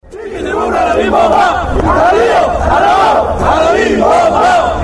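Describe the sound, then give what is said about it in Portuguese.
A large crowd of Mexican football fans chants loudly in unison a chant from the 1986 World Cup that came from a Carta Blanca beer advertisement. It is a rhythmic sung chant with rising and falling melodic phrases that repeat over a dense, steady roar of voices. “Ela surgiu a partir de uma propaganda de uma cerveja chamada Carta Blanca é, e a torcida mexicana incorporou.”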